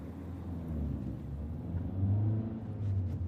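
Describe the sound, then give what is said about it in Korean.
A rental car's engine hums low and steady in front of a train station, swelling slightly partway through as the car begins to move off slowly. No voices are heard. “차를 가지고 나온이가 내미는 서류에 서명하고 시연을 조수석에 태운 뒤 서서히 움직이기 시작했다.”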